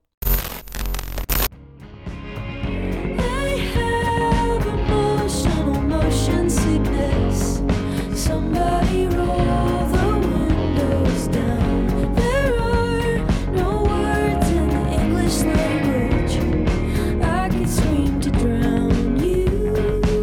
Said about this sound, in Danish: hun laver altså noget rigtig fed indie-musik, som man lige kan høre en lille lydklip af her, hvis man ikke lige ved, hvad det er for noget musik, hun laver.